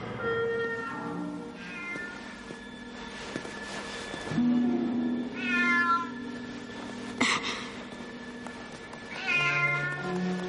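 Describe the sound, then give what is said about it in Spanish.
A cat meows several times in a gallery, drawn-out rising and falling cries spaced a few seconds apart, clear over a steady low humming backdrop. “Harry sale de la biblioteca y se encuentra con el gato de Filch en la galería.”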